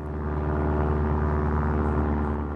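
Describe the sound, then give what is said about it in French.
A small propeller airplane, rented by a tour manager to fly a singer from Biarritz to Luxembourg, drones steadily and loudly, its engine holding an even, buzzing hum with no change in pitch or volume and no voices. “Le tourneur a loué un petit avion.”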